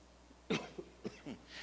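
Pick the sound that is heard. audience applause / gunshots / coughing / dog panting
coughing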